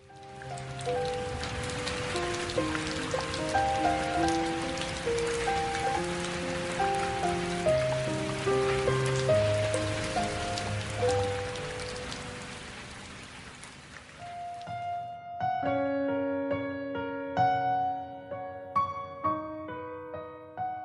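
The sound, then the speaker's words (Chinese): Steady rain hisses beneath a gentle melodic tune for about fifteen seconds, then the rain stops and the music carries on alone. No one speaks. “雨后天晴。”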